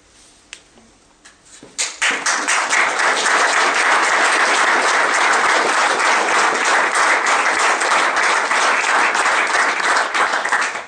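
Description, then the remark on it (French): A few scattered claps start things off, then a crowd breaks into loud, sustained applause, a dense wash of clapping that holds steady for several seconds before tapering at the end. “Alors, l'applaudissement est narcissique, il fait partie du spectacle de la marchandise, il ne faut plus le faire.”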